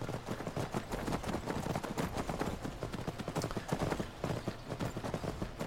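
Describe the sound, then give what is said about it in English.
Horse hooves clip-clop steadily as horses are ridden down steps, a rapid, continuous run of sharp knocking footfalls, moderately loud, with no voices. “We're going to ride, since the horses came up these steps, we're going to ride down the steps.”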